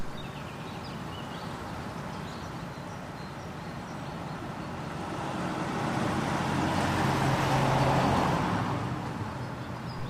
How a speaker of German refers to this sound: So klingt Michlitz zur Hauptverkehrszeit gegen 16 Uhr. Etwa alle zehn Minuten fährt ein Auto durch das Dorf.